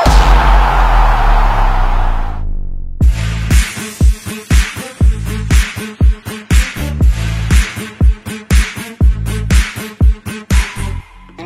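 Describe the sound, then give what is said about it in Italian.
A loud opening theme jingle: a sustained swelling tone for a couple of seconds, then driving music with punchy, evenly spaced percussive hits that carry on steadily to the end, with no voices. “Adesso ne parliamo qui al salotto col botto. Sigla!”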